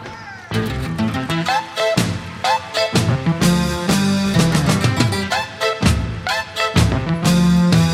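An Italian singer-songwriter song plays loudly and steadily, a male-sounding voice singing melodic lines in Italian over strummed accompaniment and light rhythmic backing, filling the whole stretch without pause.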